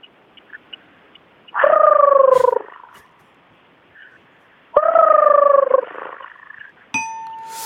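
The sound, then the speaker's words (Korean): Two loud, drawn-out honking calls from large white wading birds of unknown species at an ecological park, each lasting about a second with a pause between them, followed by a brief bell-like ring at the end. No voices. “뭐 모르는 하얀 새들. 예. 그 새들이 내는 소리거든요.”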